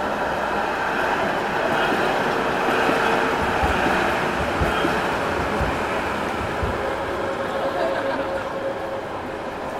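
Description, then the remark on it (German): A tram rushes past on wet rails between a Roland statue and the town hall, a steady broad hiss and rumble that stays loud for the whole stretch, with faint low thumps from the wheels. “Zwischen Roland und Rathaus rauscht immer mal wieder eine Straßenbahn.”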